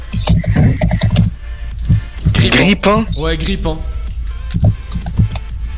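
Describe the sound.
Quick clicks of typing on a computer keyboard come in short bursts while a man talks over them, his voice rising and falling with a laugh.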